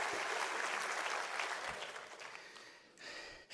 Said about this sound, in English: Because this is a place where the grace of God is ministered in this house. Clap your hands, you that know that, rejoice in that.